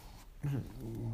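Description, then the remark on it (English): A dog growls low and steadily, starting after a brief quiet moment and rumbling on without a break for about a second. “That's our dog growling.”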